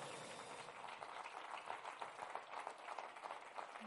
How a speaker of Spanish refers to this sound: Tenemos la ayuda del Espíritu Santo. Amén. Denle un aplauso. Aleluya.